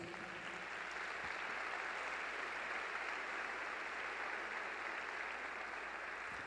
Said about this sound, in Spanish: Así que dale un fuerte aplauso a Jesús.